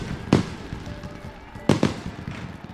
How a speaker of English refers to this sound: the whole sky broke loose. The people rejoiced. The city went wild. Fireworks were shot off at night.